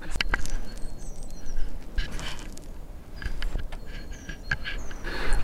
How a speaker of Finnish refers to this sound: Tuot, ikkunoista näkyy tuommoinen kaunis, kaunis aurinkoinen päivä ja linnut laulaa, mikä on aina varma kevään merkki. Se on totta. Täällä on paljon lintuja ja, ja muitakin eläimiä.